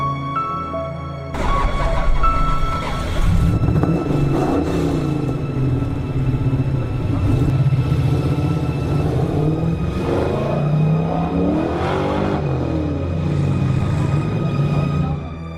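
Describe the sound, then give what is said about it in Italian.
A car engine starts up with a sudden low rumble, then runs steadily while the car is driven slowly and calmly, its pitch rising and falling gently as it speeds up and eases off. No one speaks. “Mi rimisi al volante e ricominciai a guidare.”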